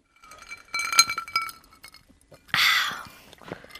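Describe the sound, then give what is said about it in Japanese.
Several bright glass clinks ring out close together near the start as glasses are touched in a toast with Shiratake Kaoru shochu, followed by a louder burst of splashing or pouring noise and small clatters. “じゃあ早速今晩も白竹薫で乾杯させていただきますはいじゃあ乾杯”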